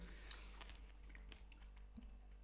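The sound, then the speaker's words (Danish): Crunchy chewing of shrimp with the shell on: a string of sharp, irregular crackles and crunches against a quiet background, with no talking. “Men jo, den, den, den, den knaser helt vildt meget. Som at spise sand.”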